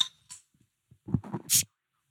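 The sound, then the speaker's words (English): A bottle of Pliny beer is pried open: a few small clicks and muffled handling thumps, then one short, bright hiss of escaping gas before it goes quiet. “Well, let's have a listen to that Pliny popping open.”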